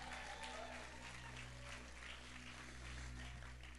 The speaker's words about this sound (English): So, let's give our media team a big round of applause.